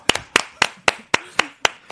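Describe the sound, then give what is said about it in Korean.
Eight sharp hand claps in a steady, even rhythm, each one crisp and bright with a quick decay, filling about two seconds with no talking. “여기까지 아~ 치시면 됩니다.”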